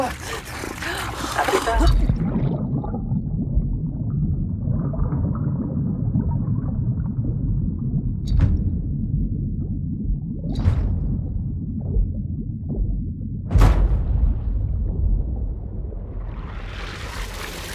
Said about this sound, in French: Évidemment, tout ce qui vient de se produire ici est une fiction. Rassurez-vous, dans le monde réel, les canalisations n'explosent que très rarement.